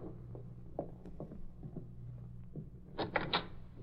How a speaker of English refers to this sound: Go ahead, open the door.